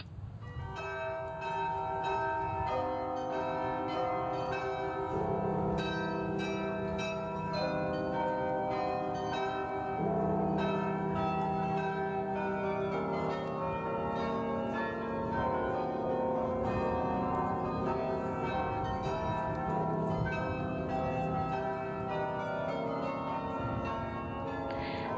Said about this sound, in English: hopefully, our listeners all recognize that tune. But did you know that it was being played by the bells in the Canadian Parliament building in honor of May the 4th?